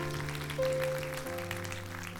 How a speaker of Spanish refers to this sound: un fuerte aplauso a su Dios en este día.